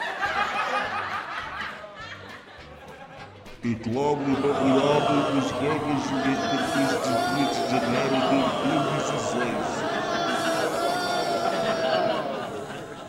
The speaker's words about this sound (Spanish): la declaración del presidente interino Temer, que no se puede escuchar con tanta rechifla de la gente